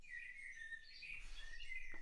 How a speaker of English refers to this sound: I've also found Noisli to be quite nice too. It's an app that allows you to set different background noises, so you might want to try a little bird song.